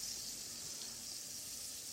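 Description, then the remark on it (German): Fish pieces sizzle steadily in a hot pan, briefly seared a few seconds on each side: a continuous crackling hiss with no pauses and no voices. “Darum jetzt auf beiden Seiten einmal kurz ein paar Sekunden anbraten.”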